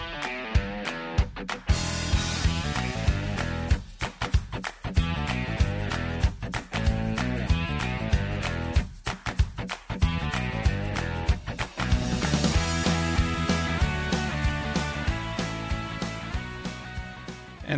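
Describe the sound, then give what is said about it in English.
A full, upbeat instrumental intro theme plays loudly for nearly eighteen seconds, with steady beats, sustained melodic chords and a few brief stops before it builds again, with no one talking. “And normally by this point, we're already through the intro credits, which uh, normally sound like this.”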